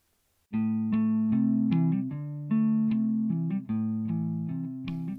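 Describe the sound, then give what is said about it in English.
A light-up dancing toy plays the Frozen movie soundtrack during lockdown, a steady, buzzy electronic melody of repeated bright notes that starts after a brief silence and continues without any talking. “I'm sorry if you can hear the frozen soundtrack in the background, but we are in lockdown and things are getting a little crowded around here,”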